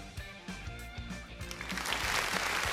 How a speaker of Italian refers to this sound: È partito l'applauso.